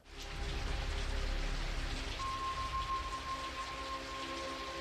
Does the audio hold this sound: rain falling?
yes